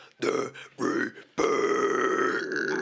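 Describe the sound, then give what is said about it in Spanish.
A strained, guttural vocal grunt like a strangled chicken: two short croaking bursts followed by a longer, sustained raspy groan, loud and harsh with a buzzing, gravelly tone. “Mi, pinche gutural salió como pollo ahorcado, güey.”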